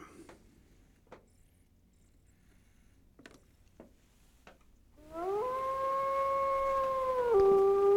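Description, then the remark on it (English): A few sparse knocks and clicks, then a wolf's long, loud howl swells upward and holds steady for several seconds before dipping lower near the end, as part of a song. “There's a wolf, there's a wolf hiding in the woods.”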